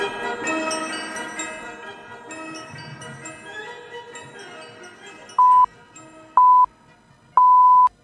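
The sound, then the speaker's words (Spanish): Radio hourly time signal beeps marking six o'clock in the evening on the station Nova Onda: three steady electronic tones a second apart, the last held longer, ringing clearly as background music fades away beneath them. “Son las seis en punto de la tarde.”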